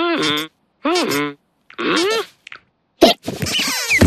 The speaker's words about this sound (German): Nein, einen Kopfstand machen hat auch nicht geholfen. Dieser Schluckauf geht einfach nicht weg.